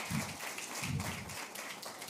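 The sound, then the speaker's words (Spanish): A crowd applauds steadily for about two seconds for a friend's newborn baby, a dense, even wash of many hands clapping at moderate loudness, with a few low murmurs underneath. “Si quieren dar un aplauso, den un aplauso a Francesco.”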